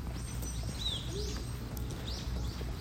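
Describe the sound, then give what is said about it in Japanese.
Several birds chirp in short, rising whistled calls against a steady low outdoor rumble, with no one talking, in a park on a chilly morning after rain in the Kanto region of Japan. “朝の公園はやっぱり気持ちいいですね鳥の鳴き声も結構聞こえています”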